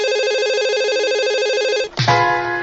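A telephone rings again, unanswered, with a loud, rapidly warbling electronic trill that holds steady for about two seconds, then cuts off with a clunk, leaving a lower steady tone.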